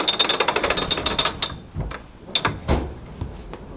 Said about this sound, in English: turns a large metal crank one time around to increase the water flow to the wheel and get the milling process started.